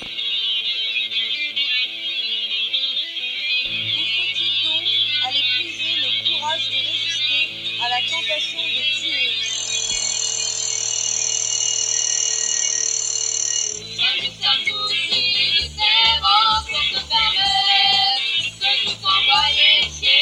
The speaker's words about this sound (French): Je vais mettre une petite chanson, tiens. On va peut-être en trouver une qui va nous réchauffer le cœur.